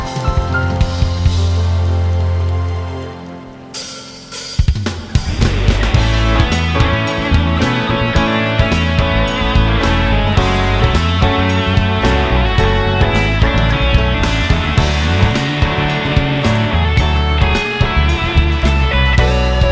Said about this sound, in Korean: 주님께 내 감사의 박수 한번 올려 드실까요?